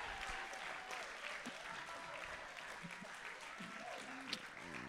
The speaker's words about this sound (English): And we can you please give these folks a hand? They're around here. Come on, stay standing. Come on, please, just clap for them. A little longer.